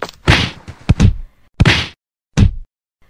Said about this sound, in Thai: พอดีกับที่ชาวบ้านวิ่งมาถึง ต่างช่วยกันทุบตีเจ้าหมาจิ้งจอกเป็นการใหญ่